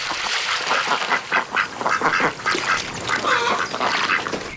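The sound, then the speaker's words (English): Ducks quack over and over in a busy, overlapping chorus as they skid to a landing on the water of a river, fairly loud, with a steady wash of noise underneath and no one talking. “I trailed my hand in the water and looked at the ducks skidding to a water landing.”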